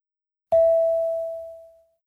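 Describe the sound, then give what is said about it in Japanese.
A single clear electronic prompt tone dings once in a language-practice exercise, signalling the learner to speak, starting sharply and ringing out as a steady pure tone that fades over about a second and a half, with no voices around it. “Speak after the tone.”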